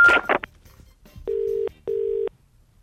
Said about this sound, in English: It's a private number. If your phone is ringing, it's a private number.